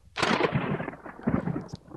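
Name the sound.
thunder sound effect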